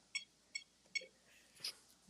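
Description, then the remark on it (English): A home alarm system being switched off beeps three times in an even rhythm, short bright electronic tones, followed by a slightly different higher chirp, with no one speaking. “That's oh, alarm off.”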